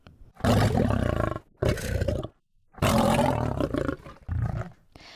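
A big cat, a panther, roars loudly in a series of four deep, rumbling bursts separated by short pauses, with no talking.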